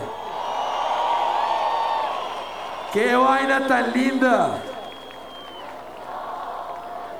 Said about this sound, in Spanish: Oh, qué vaina tan linda. Dense un aplauso todos, por favor.